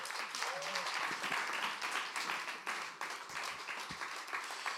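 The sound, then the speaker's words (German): Steady, dense applause from an audience at ICF welcoming a speaker onto the stage, many hands clapping at once in a continuous wash of sound for several seconds, with faint voices mixed in near the start. “Die wir ihn doch mit einem warmen Applaus auf der Bühne begrüßen.”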